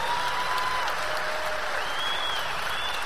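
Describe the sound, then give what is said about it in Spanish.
Sustained audience applause at an event, a dense, steady wash of clapping hands at even loudness throughout, with a few faint whistles rising above it. “Por eso tus diamantes merecen un gran aplauso, el mayor de los aplausos para tus diamantes.”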